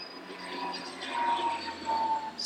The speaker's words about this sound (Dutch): Zo. ja, dat is laag. Die komt echt heel laag over. Ja, wij zitten redelijk dicht bij Hilversum. En daar vliegen soms uh, privévliegtuigjes hier over de plas.